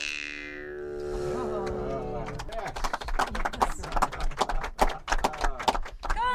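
Horses' hooves clip-clop in a quick, uneven patter of sharp knocks that fill the second half, following a sustained tonal sound at the start, among herds of horses on hills of many colors.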